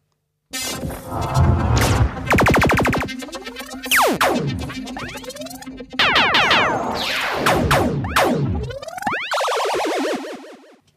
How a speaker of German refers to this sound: Mein Feuerwerk kommt jetzt.